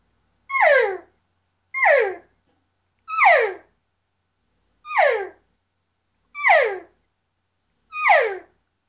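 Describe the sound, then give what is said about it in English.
An imitated cow call (cow calling rather than calf calling) repeated six times at a steady pace. Each call is a longer, nasal, two-part note that starts high and slides down, with short silences between and no talking. “It just it lasts a little longer. It's more of a two note type of call, um, and that's more of what I use out there.”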